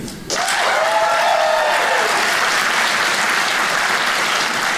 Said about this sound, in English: I always like to close my shows by taking a little poll. Uh, by applause, who here is 50 and older? Applaud if you are 50 and older. That's enough. Don't hurt yourself. Be careful. applaud if you're under, applaud if you're under 50.